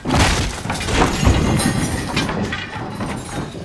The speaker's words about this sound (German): Wir saßen gerade in der Bücherei und der Lehrer las uns ein spannendes Buch vor, als wir ein lautes Knattern und Poltern hörten.